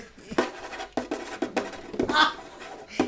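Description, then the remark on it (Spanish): Quick, scratchy strokes of a pen signing a signature on paper, coming in short bursts with a rough, rustling texture and brief pauses between strokes. “Qué bueno que se escucha la sí, weá. Se escucha muy fuerte.”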